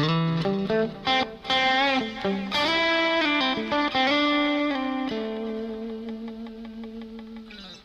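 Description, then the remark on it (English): An electric guitar plays airplane slides through heavy effects, the player touching the strings so no end note is heard: bending, sliding notes swoop in pitch, then one long note sustains and slowly fades with echo and shimmer, no talking. “So that's what you start getting used to is airplane slides.”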